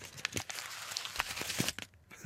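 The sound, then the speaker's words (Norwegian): Crisp crinkling and rustling of ordinary paper wrapping being pulled open around a packed lunch, with a quick run of sharp crackles and tearing sounds and no talking. “Og så åpner jeg opp den gode nissen. Høres det ut som en nisse? høres veldig ut som en niste.”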